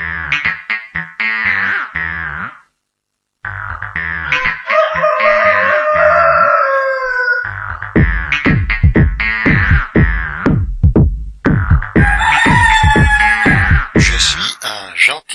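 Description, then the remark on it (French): A short, comedic jingle for a guest segment, full of loud clucking and rooster-like crowing, with rapid staccato clucks bunched together, a brief pause early on, then more squawks. “Excusez-moi, j'étais pas au courant du jingle.”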